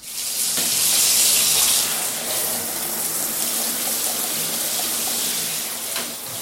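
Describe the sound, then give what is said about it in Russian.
Steady, hissing rush of water pouring continuously from a running shower, broad and constant for several seconds with faint bumps and no voices. “То же самое и с принятием душа.”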